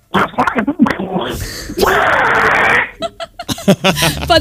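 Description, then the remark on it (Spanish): Someone imitates the voice of Donald Duck when he gets angry, with choppy raspy squawks building to one long harsh, sputtering blast, then more quick garbled squawking and a hint of laughter. “el de hacer la voz del pato Donald cuando se enfada.”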